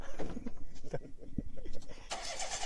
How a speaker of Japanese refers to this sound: あ、じゃあ、もう、ちょっとエンジンもうるさくなるんで、えっ、ー、と、そろそろ切ろうと思います。